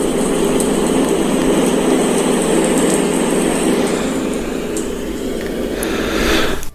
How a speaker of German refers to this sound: Und dann hören wir aus der Ferne einen Hubschrauber. Ich habe hier mal einen Sound mitgebracht.